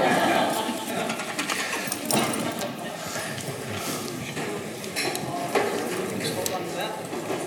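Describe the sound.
Busy clatter and scraping of chairs being moved to the side of a room to clear an open space at the front, with scattered knocks and thumps throughout and a murmur of voices underneath, steady.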